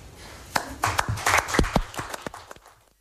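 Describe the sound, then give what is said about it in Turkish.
A short burst of applause from a small group at a 23 April Children's Day event at the Turkish Prime Minister's office, with sharp, irregular claps that swell quickly, hold for a couple of seconds, then taper off into quiet. “Benden bir alkış bekliyor musunuz?”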